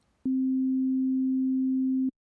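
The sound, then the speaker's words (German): A pure, steady sine tone from a sine generator at a low-mid pitch holds unchanged for about two seconds, starting and stopping abruptly, with nothing else audible. “Die Klänge, die wir in diesem Stück hören, hat er einem sogenannten Sinusgenerator entlockt. Ein Sinuston klingt so.”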